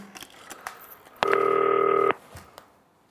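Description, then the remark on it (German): Telephone keypad tones as a green phone is used to call a team: a few quick, short beeps followed by one louder, steady tone held for nearly a second, clear with no talking. “Ähm, ja, muss ich mal eben das 40-köpfige Team anrufen. Grüne Telefon benutzen.”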